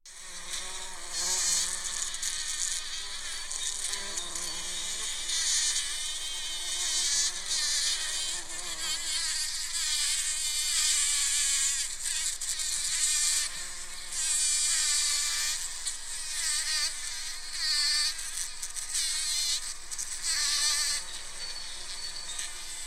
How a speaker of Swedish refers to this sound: Jag önskar till exempel att du kunde se den knallröda jättevalmon som dignar av humlor som tumlar runt inne bland bladen och de mjuka svarta pollenstinna spröten. Hör!